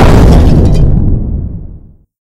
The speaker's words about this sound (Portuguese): Foi uma puta de uma explosão ali.